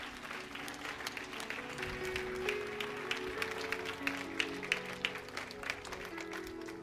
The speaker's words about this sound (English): Because he's God and he loves you. Come on, get a lot of hand clap like you know it.